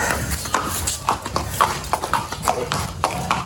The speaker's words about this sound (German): In jedem Lot sind rund ein Dutzend Pferde unterwegs.